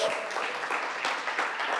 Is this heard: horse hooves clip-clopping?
no